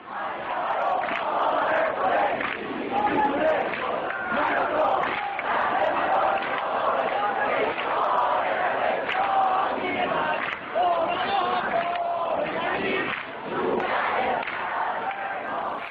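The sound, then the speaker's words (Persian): A large crowd of students at the University of Tehran chants together in unison on a wet autumn day, loud and sustained, voices merging into a dense roar with rhythmic rises and dips throughout. “این صدای همخونی دانشجوهاست در یکی از پاییزهای خیس تاریخ دانشگاه تهران”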